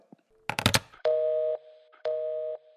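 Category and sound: signal or alarm, telephone tone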